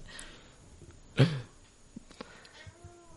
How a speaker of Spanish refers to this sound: El gato ha hablado.